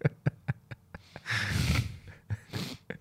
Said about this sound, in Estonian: äge, see oli ninast äge hääl praegu.